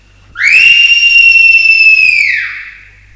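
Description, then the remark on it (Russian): A single long, clear whistled note rises in, holds steady for about two seconds, then slides down and fades: birdsong, loud, with no one speaking. “Мне хочется, чтобы вы вместе со мной услышали пение птиц.”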